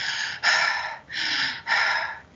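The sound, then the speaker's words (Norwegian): Deep, audible breaths drawn in and pushed out: two full cycles of airy inhales and exhales, each lasting about half a second, with no talking. “med dyp inn- og utpust.”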